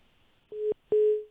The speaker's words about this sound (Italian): Ah, è caduta. Eh, è caduta. È caduta la linea.